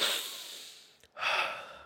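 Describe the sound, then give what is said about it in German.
A person deliberately breathes in and out deeply and noisily, two long exaggerated breaths separated by a brief pause, with no talking. “Die ganze Zeit atme ich so, ja, wie soll ich atmen?”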